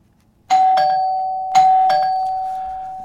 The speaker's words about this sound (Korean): 예, 초인종 소리입니다. 어, 누가 왔나 하시는 분들 아니고 저희가 지금 이펙트 사운드 들려드린 거예요.